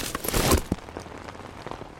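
Rain patters steadily onto a hard surface, with a heavier splashing burst early on and scattered individual drops tapping through the rest, moderately loud.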